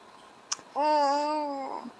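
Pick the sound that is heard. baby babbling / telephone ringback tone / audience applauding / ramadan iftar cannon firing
baby babbling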